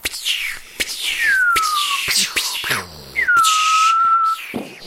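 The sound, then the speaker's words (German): Voices imitate whistling New Year's fireworks instead of real ones: rising and falling whistle tones glide downward, punctuated by short puffs and breathy bursts, fairly loud, with a low rumbling blown noise in the middle. “Auch in diesem Jahr übrigens, in dem so viel Feuerwerk wie noch nie importiert wurde, knallen wir jetzt zum Schluss nachhaltig und mhm.”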